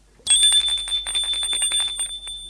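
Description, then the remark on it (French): A bell rings in a rapid, continuous trill with a bright metallic tone, starting abruptly and sustaining loudly for a couple of seconds, with no one speaking. “La sonnerie retentit.”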